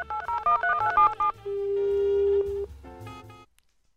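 A quick run of telephone keypad dialing beeps, followed by a long, steady ringing tone and a few more electronic phone tones before falling silent. No one speaks.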